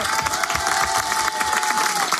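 An audience bursts into steady applause, a dense, continuous patter of many hands clapping at an even loudness for about two seconds, with a faint sustained tone running underneath.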